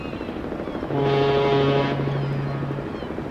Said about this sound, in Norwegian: Ved kaien i Sandefjord på begynnelsen av 90-tallet.